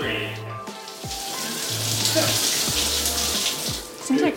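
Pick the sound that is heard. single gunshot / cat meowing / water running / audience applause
water running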